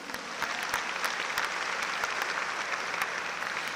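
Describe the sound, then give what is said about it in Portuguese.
An audience at a church service claps for Jesus steadily and continuously, a dense wash of many hands applauding together at an even level throughout, with no voices standing out. “Você pode dar uma salva de palmas para Jesus?”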